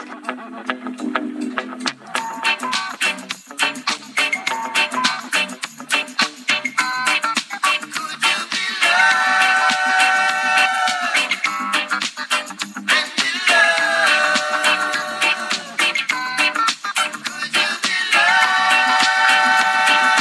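A reggae song plays steadily at full volume for the whole stretch, with choppy rhythmic strums, bass and layered melody, after a brief quieter opening; no one talks over it.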